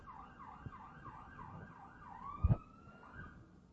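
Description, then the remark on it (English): An emergency siren wails outside in a rapid rising-and-falling pattern over low traffic rumble, with a brief thump midway and no one speaking. “I hope that's just a ticket. Because if it's, yeah, if it's somebody being hurt, it could be somebody being ushered off into eternity.”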